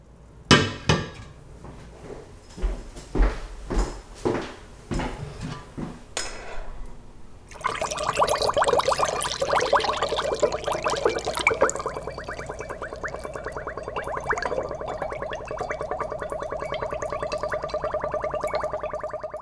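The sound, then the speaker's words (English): A series of sharp knocks and taps gives way to a steady gurgling rush of homemade plum wine draining through a funnel into a bottle, air escaping to make a bubbly crescendo, bubbling continuously until the end, with no voices. “This is wine draining through a funnel.”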